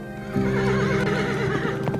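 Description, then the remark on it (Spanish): A horse whinnies loudly, its wavering neigh carrying over a steady background, while faint hoof clops patter underneath toward the end; two horses wait with a carriage in a cave at midnight. “Un coche y dos caballos le esperaban en una cueva cercana.”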